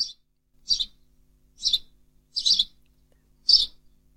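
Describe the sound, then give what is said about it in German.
A house sparrow chirps alone, repeating short, bright chirps at a steady pace, about five calls with brief gaps between them, clear against a quiet background. “Das Chilpen vom Haussperling.”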